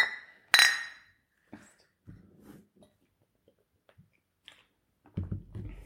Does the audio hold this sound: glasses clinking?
yes